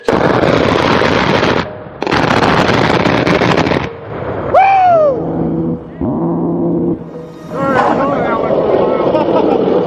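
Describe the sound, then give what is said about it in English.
Two long, loud bursts of rapid aircraft cannon fire tear through one after another, then give way to a rolling, drawn-out echo with whining, shifting tones that linger for several seconds. “Uh, you hear at first when it fires, and then you hear it echo from the gun in the sky.”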